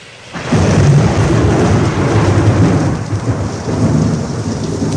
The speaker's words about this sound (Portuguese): A chuva fica ainda mais pesada em Roma.